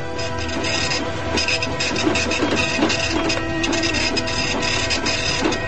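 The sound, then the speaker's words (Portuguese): A dot matrix printer printing steadily, its dense, rasping buzz pulsing in quick bursts as the print head sweeps back and forth, with no voices. “Ela desenvolveu impressora matricial para ser usada na Olimpíada de 64.”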